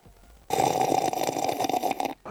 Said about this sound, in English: What you need to do is sip you some black powder coffee because I know there's a stash there at Studio A.